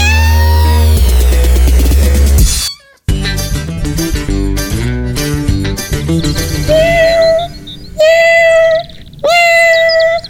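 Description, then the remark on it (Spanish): A cat named Sakuchan meows three times in the second half, clear, drawn-out cries over steady background music that plays alone at the start. “Él es mi gato y se llama Sakuchan.”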